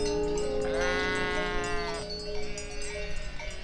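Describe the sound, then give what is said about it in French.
A sheep gives a loud, wavering bleat lasting over a second, followed by quieter rustling and shuffling sounds, with no talking. “Où, quand on a un super plan bouffe, on belle fort pour prévenir les copines.”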